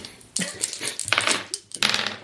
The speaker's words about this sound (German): Ja, dann würfeln wir doch nochmal neu.